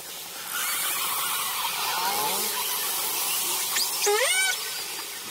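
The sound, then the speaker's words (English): Calls from a pod of killer whales, recorded underwater through a hydrophone thrown overboard from a sailboat: faint whistly sweeps, then one loud rising, harmonic-rich squeal near the end, all over a steady wash of hissing water noise. “Once I was on a sailboat and the captain threw a hydrophone overboard when we came across a pod of killer whales.”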